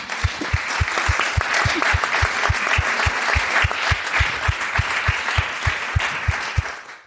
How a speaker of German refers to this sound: Dafür vielleicht schon mal einen Applaus.